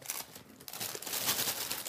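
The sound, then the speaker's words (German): Continuous crinkling of a plastic bag of barbecue marshmallows being handled, a dense crackly rustle that briefly dips then swells again, with no voices over it. “hier ist das gute Stück. Eine Tüte super Barbecue Marshmallows.”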